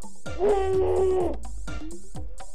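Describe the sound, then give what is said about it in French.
A loud, sustained dinosaur roar sound effect lasts about a second, with a rasping, strained tone, set against a rhythmic musical backing that continues after it stops. “Alors les amis, vous aimez les animaux Écoutez la poule Ou alors la chèvre ou le dinosaure”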